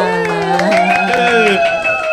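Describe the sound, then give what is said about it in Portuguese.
A crowd applauds with dense, rapid clapping while voices cheer and whoop over it, welcoming an autistic artist onto the stage; a steady and fairly loud burst of enthusiasm lasting a couple of seconds. “Uma salva de palmas!”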